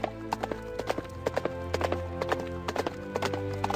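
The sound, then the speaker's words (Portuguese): Horse hooves galloping in a quick, steady clip-clop rhythm, clear, with a low rumbling background and no voices. “Vocês fazem aquele movimento com o arreio do cavalo e saem galopando, continuando a jornada.”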